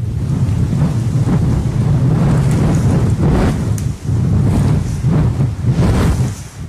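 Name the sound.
wind blowing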